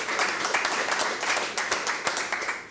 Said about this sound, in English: Big round of applause. Well done.